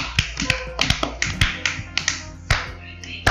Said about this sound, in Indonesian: wih tepuk tangan iya